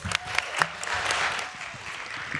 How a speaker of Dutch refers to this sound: Maar we hebben nog wel een optreden hier. Oh, …, mag ik alsjeblieft een applaus?